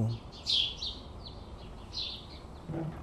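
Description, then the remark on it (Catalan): Several birds chirp outdoors in Barcelona after a summer storm, heard from a balcony, in a series of bright, high twittering calls spread across a few seconds, over a low rumbling background with brief low murmurs at the edges. “On s'amaguen els ocells quan hi ha una tempesta com aquesta?”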